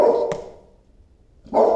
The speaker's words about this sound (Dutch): Uiteindelijk, ik loop even weg hoor, want echt, het is, ik dacht het is toeval, maar het is geen toeval. Als ik aan een podcast ben, als ik aan het bellen ben, dan, dan gaat hij blaffen.